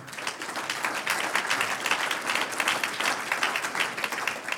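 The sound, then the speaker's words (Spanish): An audience breaks into sustained applause, many hands clapping in a dense, steady patter that stays loud and even for several seconds with no voices standing out. “Un aplauso al que vive.”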